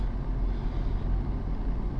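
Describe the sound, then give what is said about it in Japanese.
A car that failed to make a required stop rumbles along the road, a steady, low engine and tire drone that holds an even loudness for a couple of seconds, with no voices. “なぜ一時停止いや危ないですね今ね一時停止ねしない車がありました”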